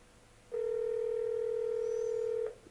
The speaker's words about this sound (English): It doesn't look like he's going to pick up the phone. Okay. I always love it when the guests say, call me on a landline. Here, I'm going to give you a landline to call. And then I call them, and they don't pick up the phone.